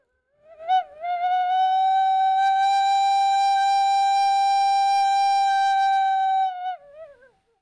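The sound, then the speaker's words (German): A short, breathy, wavering blow, like wind whistling irregularly through windows, settles into a strong, steady whistling tone on the note G, held for about six seconds, then slides downward and fades. Fairly loud, with no voices. “Das hörte sich also am Anfang eher an wie so ein, ein Wind, der durch die Fenster pfeift unregelmäßig, also noch nicht als gleichmäßiger Ton wahrzunehmen.”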